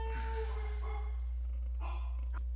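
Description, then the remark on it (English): Dogs give a few short, scattered barks and whining yelps, fairly faint, over a steady low background hum with no talking. “as you can hear, those dogs are ready to go, ready to go.”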